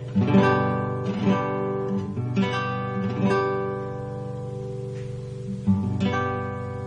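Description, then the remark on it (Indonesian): An acoustic guitar strums a G major chord several times in an uneven rhythm, each strum ringing out clearly, with no talking. The chord is fretted with the ring finger on string 1 fret 3, the index finger on string 5 fret 2 and the middle finger on string 6 fret 3. “kemudian kita beranjak ke kunci G G mayor jari manis itu menekan senar 1 di kolom 3 kemudian jari telunjuk jari telunjuk menekan senar 5 kolom 2 dan juga jari tengah menekan senar 6 kolom 3 nah seperti ini suaranya”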